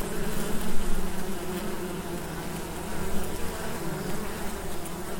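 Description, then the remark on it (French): A dense, continuous hum of many honeybee workers buzzing on the frame tops of a hive, a steady droning swarm sound with slight swells in intensity, no voices present. “Voilà, des ouvrières sur les têtes de cadre.”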